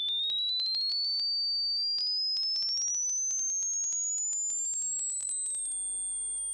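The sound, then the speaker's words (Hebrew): A pure sine test tone sweeps slowly and steadily upward from a high whistle to a piercing shrill pitch, playing alone with faint clicks and crackles scattered through it. “הנה הגענו כבר ל-10 קילו הרץ, אנחנו ממש לקראת סוף הספקטרום. אלה עדיין תדרים שאנחנו שומעים.”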